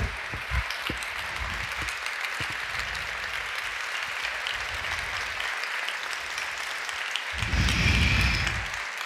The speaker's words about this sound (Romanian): Pe tine te aplaudă.